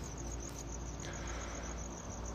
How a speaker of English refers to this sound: Right now, I'm in St. George, Utah. I can hear some crickets chirping.